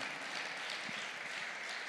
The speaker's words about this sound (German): Ja, lass uns Jesus mal einen Applaus geben.